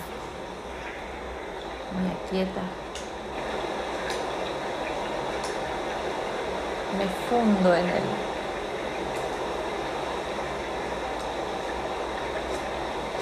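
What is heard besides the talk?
loud rushing water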